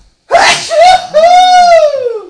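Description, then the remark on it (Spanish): One loud sneeze: a sharp breathy burst followed by a drawn-out, strongly voiced wail that slowly trails off. No talking around it. “Salió volando. Ay gran Salud para mí.”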